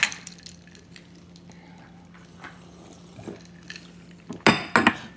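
Glasses clink together in a toast to start a reading, two bright ringing taps near the end, after a few faint clatters and light handling sounds over a quiet, low hum.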